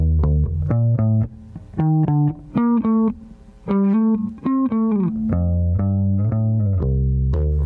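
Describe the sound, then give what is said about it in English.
A plain bass guitar lick, played without the bass synth effect, plays alone: a quick run of plucked notes that climbs and dips, ending on a few longer sustained tones, fairly loud. “So that lick without the bass synth would sound like this”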